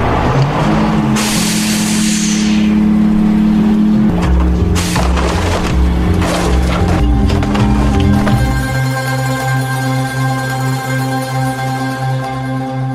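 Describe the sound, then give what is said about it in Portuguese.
A heavy garbage truck engine rumbles loudly, its deep drone rising and falling as it revs, with a sharp hiss of air and a few metallic clanks early on. “Agora é a vez dos caminhões de lixo.”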